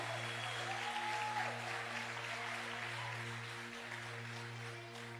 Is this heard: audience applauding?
yes